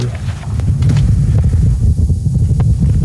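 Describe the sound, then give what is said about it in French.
A muffled Martian wind gust captured by the Perseverance rover's microphone on Mars, the first audio ever recorded by a microphone on the planet, a steady low rumble with soft, irregular buffeting pulses throughout, fairly loud, with no voices. “Ah, voilà ce que vous entendez là, c'est le son d'une bourrasque de vent martien.”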